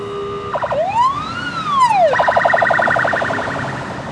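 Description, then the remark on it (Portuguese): An ambulance siren in the city rises and falls in one long wail, then switches to a rapid warbling yelp, loud, with no talking. “Um concerto de buzinas e ambulâncias que faria inveja ao ….”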